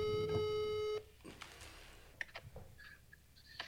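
A telephone ringback tone sounds for about a second, loud and steady, then cuts off into clicks and a few short electronic beeps as the call connects. No one speaks.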